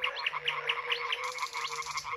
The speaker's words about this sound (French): Cette partition ne serait pas la même sans le rythme des crapauds à ventre de feu.